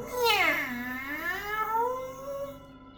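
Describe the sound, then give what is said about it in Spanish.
A single long, drawn-out cat meow, its pitch swooping down and then climbing again before trailing off. It is loud, with no talking. “más adelante se encontraron un gato”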